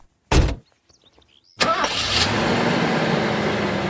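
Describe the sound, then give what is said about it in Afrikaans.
A car door thuds shut, then after a short pause the car's engine cranks and catches, settling into a steady idle rumble that continues to the end, as a mother and her son set off for the shopping centre. “Roep mamma, wat klaar in die kar sit en wag vir hom.”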